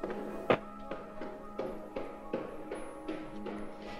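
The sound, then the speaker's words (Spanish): Steady footsteps of siblings thud down wooden stairs, roughly ten hollow steps at an even pace, the first one heaviest, moderately loud with a faint hum behind them. “Los hermanos bajan las escaleras de madera para dirigirse al cuarto donde están todas las cosas.”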